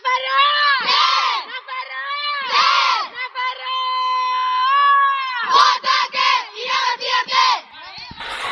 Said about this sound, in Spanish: Bueno, el grito de las chicas de Navarra ya está esto preparado, ya está en plena lucha por el séptimo puesto, por el sexto, por el octavo, por el quinto.